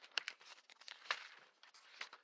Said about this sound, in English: They shuffle through some papers like this.